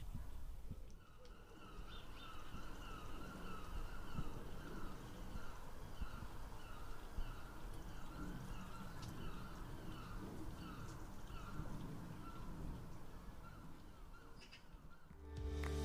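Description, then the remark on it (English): Seagulls call repeatedly over steady outdoor background noise near the sea, their harsh cries quiet, continuing throughout with no talking. “We can hear the the seagulls from time to time, can't we?”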